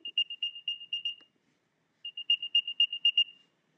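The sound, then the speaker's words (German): An Apple AirTag's high electronic chirping melody plays in two bursts, growing louder, a rapid series of bright, rising beeps, a pause, then the same pattern again, with no voices over it. “Und jetzt zeige ich euch mal, wie dieser AirTag sich so anhört.”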